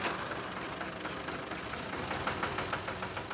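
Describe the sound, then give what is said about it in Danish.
An American tractor engine, of the kind bought for Danish farming with Marshall Plan loans, runs steadily, its rumbling idle carrying a faint rhythmic knocking throughout. Fairly loud, with no voices. “I Danmark blev Marshallhjælpen brugt på landbruget i et lån, som man brugte på at investere i 5.000 amerikanske traktorer.”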